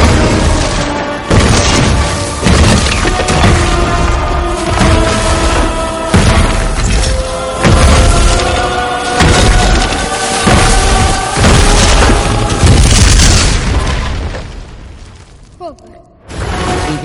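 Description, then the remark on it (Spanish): Stone columns collapse one after another like dominoes after a breaking scaffold strikes one, in a long run of heavy crashes and deep booms over a dense rumble, loud throughout before fading out near the end. “La columna cede y tira otras por efecto dominó.”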